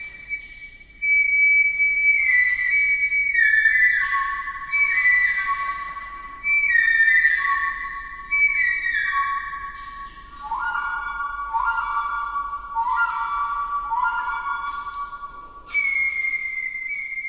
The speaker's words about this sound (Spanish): El instrumento más antiguo del mundo tiene 43.000 años y es una flauta hecha de hueso de aves y marfil de mamut, encontrada al sur de Alemania, lo que la convierte en el instrumento más viejo de la historia.